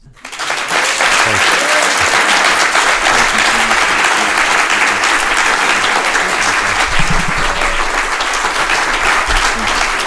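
A large audience applauds its guests steadily for about ten seconds, a dense, sustained wash of applause that starts abruptly and stays loud and even throughout, with no one talking over it.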